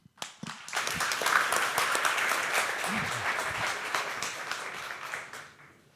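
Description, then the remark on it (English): An audience at a Long Now event bursts into a round of applause for Long Now co-founder Stewart Brand, a dense wash of many hands clapping that swells quickly, holds steady for several seconds, then tapers off toward the end. “Um, so please give a big hand of applause, round of applause for Long Now co-founder Stewart Brand, who's going to introduce Neal.”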